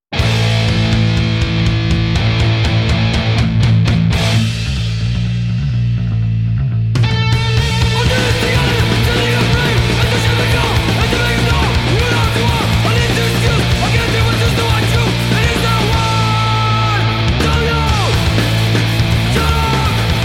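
A short burst of loud, fast hardcore punk: a filtered, thin-sounding intro for several seconds, then the full band crashes in with dense distorted guitars, driving bass and pounding drums.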